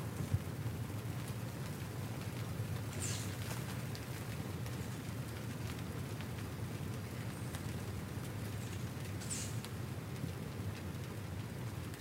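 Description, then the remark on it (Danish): Light rain begins to fall, pattering steadily with a soft, crackling hiss over a low background rumble, and a couple of brighter splashes stand out briefly. No one speaks. “Det lyder flot nu, ikke, når regnen begynder.”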